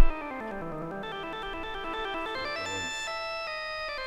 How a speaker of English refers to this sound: It's kind of cool. He's just really going nuts on that organ. Oh, that's two notes.